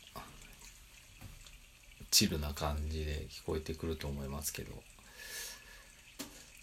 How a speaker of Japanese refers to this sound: 今日は小川のせせらぎと焚き火の音が